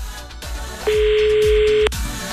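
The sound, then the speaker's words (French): A single telephone ringback tone, the second ring of an outgoing call, one steady electronic beep lasting about a second, sounds loud over a soft rhythmic music bed. No one speaks. “Deuxième sonnerie.”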